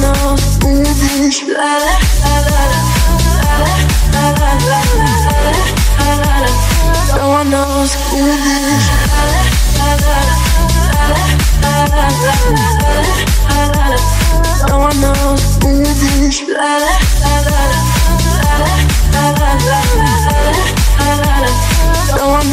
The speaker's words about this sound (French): Un hit extrêmement estival